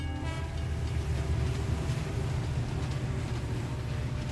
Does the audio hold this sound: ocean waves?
no